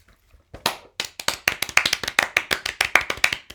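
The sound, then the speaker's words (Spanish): A few people clap together as applause: about three seconds of quick, slightly uneven hand claps, fairly loud, with no voices. “Esa es toda la tecnología que manejamos para insertar aplausos. Aplaudimos.”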